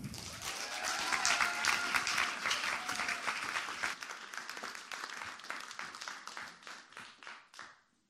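A crowd of people applauds steadily as speakers are invited onto the stage, the dense clapping staying strong for several seconds before gradually thinning out and fading toward the end.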